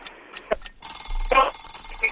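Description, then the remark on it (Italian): A steady electronic phone line tone sounds as a call cuts off, lasting a couple of seconds at moderate volume, with faint muffled voice traces around it. “se si è interrotta telefonata”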